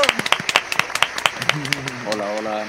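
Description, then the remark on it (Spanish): A burst of welcoming applause for the day's guest: quick, irregular sharp claps from a handful of people, fairly loud at first, with a voice starting to talk over the tail end as the clapping continues. “Démosle un fuerte aplauso de bienvenida”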